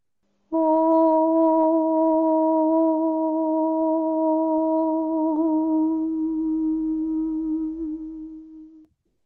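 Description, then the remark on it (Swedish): A single voice holds a raised 'om' chant in a higher key as one long, steady drone for about eight seconds. It is fairly loud, with no other sounds around it, before it fades out. “Och det är ljudet av orm i en högre tonart.”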